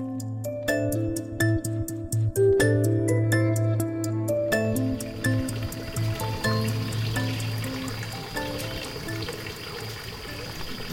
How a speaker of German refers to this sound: Wir haben hier unten einen Feuerwehrweiher ursprünglich. Dann ist ein Bach, der hier unten durchläuft. Und den Feuerwehrweiher füllen wir mit dem Bach.